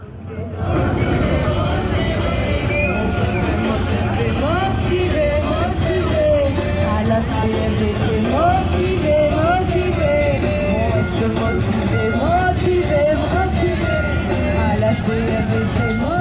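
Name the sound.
protest march crowd chanting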